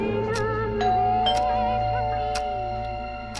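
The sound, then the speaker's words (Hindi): Chiming tones ring out over a steady tonal background, like a doorbell's ding-dong notes sounding a few times in sequence, clear; the doorbell of a fifth-floor flat in a five-storey building. “TV पर retro Bollywood song सुन रही थी कि अचानक डोरबेल बजी”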